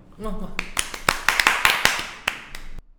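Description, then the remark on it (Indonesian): A brief voice gives way to a burst of hand clapping, about ten sharp, bright claps in a loose, uneven rhythm, fairly loud, then stopping abruptly. “see ya tepuk tangan dong”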